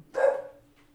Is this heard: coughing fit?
no